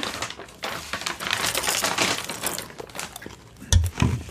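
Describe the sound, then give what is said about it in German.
A water bottle being opened: a stretch of crackling, crinkling plastic and small clicks, ending in a brief louder knock or pop. No one speaks. “Warte, ich tue mir noch schnell das Wasser auf.”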